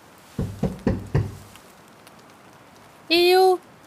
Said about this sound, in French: Il frappa à des arbres. Peut-être qu'un écureuil l'entendrait.